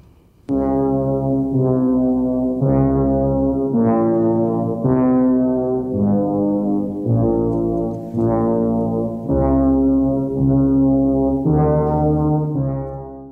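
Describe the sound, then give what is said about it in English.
Deep, droning electronic synthesizer reorchestration of the opening music of the film The Shining, playing a slow, ominous melody of swelling brassy notes, loud and continuous for the whole stretch with no voices. “it's an electronic reorchestration of it, I think”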